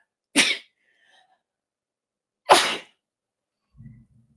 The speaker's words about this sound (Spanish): cómo disfruto estornudar.